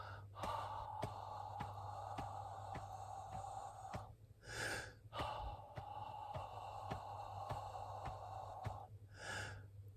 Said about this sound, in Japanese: 歯の口で7拍吐いて8拍目に吸う。この繰り返しをちょっとやってみますね。聞いてってみてください。